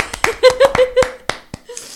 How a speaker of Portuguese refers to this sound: Palmas para este sucesso terapêutico.